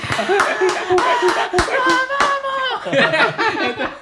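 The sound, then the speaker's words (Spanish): Steady, rhythmic hand claps, about two or three per second, ring out loud while voices laugh and talk over them throughout. “tenemos ahora público. Mira cómo aplauden.”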